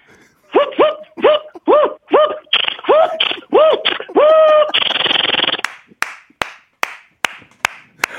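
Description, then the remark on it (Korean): A voice imitates a car tire being fitted: a quick rhythmic string of chugging vocal bursts, a long hissing whir like an air tool, then several sharp, spaced clicks. “자 마지막 앵콜. 자동차 타이어 조립하는 소리.”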